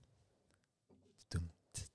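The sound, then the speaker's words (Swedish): Quiet mouth sounds of someone sipping water, with soft wet smacks followed by two louder swallowing gulps near the end. No one speaks. “men, man, jag måste ta lite vatten.”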